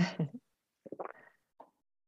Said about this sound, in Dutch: Een slokje water hoor.